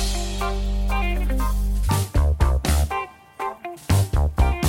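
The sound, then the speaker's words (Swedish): A synth-driven song played with a synth bass opens on a loud sustained bass drone, then breaks into punchy rhythmic hits with bright synthesizer chords and a heavy, pulsing bass line. “Ehm, så då kommer en, en, en låt med lite synthesizer.”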